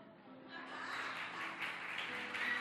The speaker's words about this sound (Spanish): Aplauso.